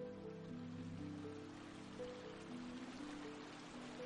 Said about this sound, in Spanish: Mientras caminas, Escuchas el ruido de la corriente de un río.